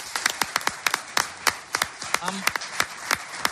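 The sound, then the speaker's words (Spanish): Scattered hand claps from an audience after a sung performance, sharp and fairly loud, beating irregularly rather than in rhythm, with a brief low vocal sound partway through. “Vamos a dar un aplauso”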